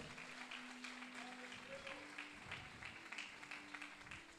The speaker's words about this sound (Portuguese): Dê um glória a Deus. Dê um aplauso a Jesus. Aleluia.